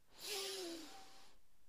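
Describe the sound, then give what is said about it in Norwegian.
A long, deep breath drawn in through the nose during a breathing exercise, a steady airy hiss lasting about a second with a faint nasal whistle, heard alone without talking. “Pust godt inn med nesa.”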